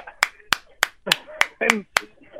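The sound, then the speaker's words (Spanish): Seven sharp hand claps from someone clapping while kneeling, in a steady, even rhythm, each a bright crisp smack, with a voice talking and exclaiming "bravo" underneath between them. “bravo, permítame, joder, que estoy aplaudiendo hincado como tiene que ser.”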